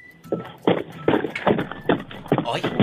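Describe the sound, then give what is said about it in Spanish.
Steady, evenly spaced hoof clops of a horse walking, about seven knocks in a regular rhythm, with faint voices murmuring in the background. “ahí se oye. ¿El caballo?”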